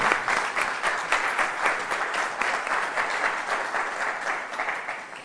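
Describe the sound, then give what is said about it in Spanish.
Sustained applause from a group, dense overlapping claps forming a steady, fairly loud wash of sound for several seconds, with no one speaking over it. “merecen un aplauso tremendo por ese trabajazo que hacen y que nos regalan en YouTube.”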